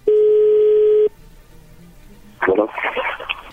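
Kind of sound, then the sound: signal or alarm, telephone call being dialed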